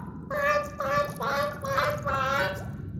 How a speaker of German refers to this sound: Und wieso werden Leute beim Möwengeschrei immer so gefühlig? Verstehst du etwa, was die sagen? Die können genau ein Wort.